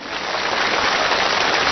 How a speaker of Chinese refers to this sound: 你看，音乐停了以后，掌声就没有停。哎，没有停。怎么样？这都是给我的掌声。